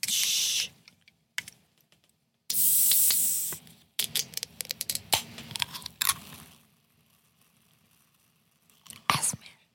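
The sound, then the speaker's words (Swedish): A can being opened with a sharp hiss, heard as two short bursts of fizzing air, followed by scattered light taps and clicks before it falls quiet. “alltså, när, jag, när jag öppnade den här burken, man såg nästas blick.”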